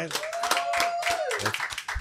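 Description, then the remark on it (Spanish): Audience applause: dense, steady clapping fills the whole two seconds, with a sustained high whistle or cheer riding over it and voices mixed in. “Un aplauso, por favor.”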